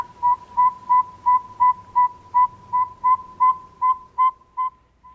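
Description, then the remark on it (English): A northern saw-whet owl gives a steady series of about thirteen clear, whistled toots, roughly three per second, prominent over a faint low background rumble. “Yeah, that's our saw-whet owl.”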